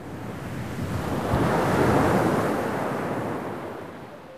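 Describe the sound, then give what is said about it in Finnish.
Sea waves wash onto the shore by the sea in Greece, in sunshine, in a broad, steady roar that swells toward the middle and eases off again, with some wind rushing across the microphone and no voices. “Meren äärellä Kreikassa paistaa jälleen aurinko.”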